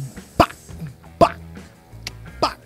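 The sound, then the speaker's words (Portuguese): Someone imitates a slow vaneira drum beat at about 45 BPM with their mouth: four sharp, punchy vocal hits spaced unevenly over a couple of seconds, with a quiet pause between each beat. “Pacum, pam, pacum, pacum.”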